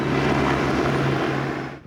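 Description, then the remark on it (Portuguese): A police surveillance helicopter drones overhead during an operation in the Cracolândia area, with a loud, steady engine roar and a low humming tone, then starts to fade away in the last moments. No one speaks. “A vigilância era feita também do helicóptero.”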